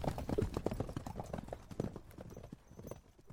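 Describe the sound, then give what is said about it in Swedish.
Hooves of a horse-drawn carriage clip-clop in a steady, brisk rhythm, moderately loud, with a faint rumble of wheels beneath and no voices, as the carriage drives away with two people seated up in it. “Det hade herremannen ingenting emot lät de båda sitta uppe i vagnen och så for de bort tillsammans.”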